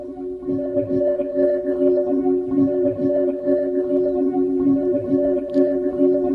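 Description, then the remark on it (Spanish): A recording said to capture Saturn's moon Titan: steady, layered electronic-sounding drones with a fluttering, rumbling low undertone, sustained and fairly loud throughout, with no voices. “Así suena una luna del sistema solar.”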